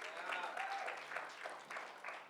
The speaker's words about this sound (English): So, not really. Not that many people clap, so I don't know.